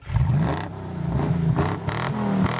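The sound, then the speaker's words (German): A 1957 BMW 507 V8 sports car engine, 150 hp, revs up loud, its pitch rising and falling through several throttle blips with bursts of gritty mechanical roar, no voices. “Der BMW 507, Baujahr 1957, 8 Zylinder, 150 PS.”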